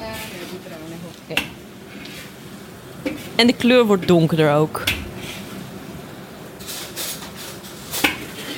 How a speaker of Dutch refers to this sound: je ziet heel erg dat die olie loskomt uit, eh, uit de saus. Dat het echt hard begint aan te bakken.